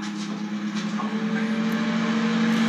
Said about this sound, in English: Sounds like Mr. Spoon's spaceship taking off. Um, so They're off to colonise Button Moon.